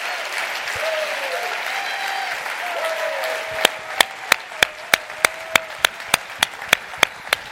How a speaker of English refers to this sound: Come on, put your hands together and clap.